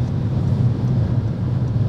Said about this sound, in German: Ich merke gerade, dass das Auto hier an seinem Limit ist. Ach so? Ja. Was meinst du mit der Limit? Ja, das ist das nicht schneller als 160? Ja, irgendwie.